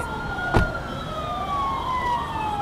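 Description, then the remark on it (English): Several police sirens wail at once from an endless row of dozens of police vehicles with blue and red lights flashing, passing along Queens Road. Their tones sweep and cross, with a brief sharp thump early on and steady traffic rumble underneath. “across the street on Queens Road, there was an endless row of police vehicles headed in the other direction, just dozens of them, blue and red lights flashing.”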